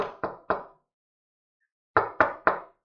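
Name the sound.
knocking on a door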